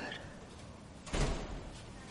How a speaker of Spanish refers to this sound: Él se golpea la frente contra una puerta en el psiquiátrico, en el despacho.